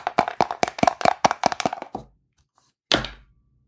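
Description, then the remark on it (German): A die rattles across a hard table in a quick run of about a dozen clattering bounces that slow and fade, then after a short pause one more sharp knock sounds. It is rolled to set an endurance value in a Lone Wolf game and lands on a four. “Darum hätte ich jetzt einfach mal gesagt, ich würfel nochmal und das, was dann da ist, ist dann aktuell mein Ausdauerwert.”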